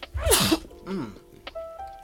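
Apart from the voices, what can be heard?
a sneeze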